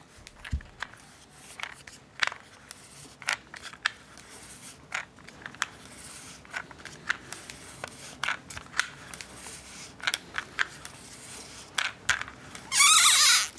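Quiet handling of a new cassette tape: fingertips touch the tape as the reel is turned slightly, giving a string of sharp little squeaks and crackles at irregular intervals, ending in a brief rough rustling burst. No one speaks.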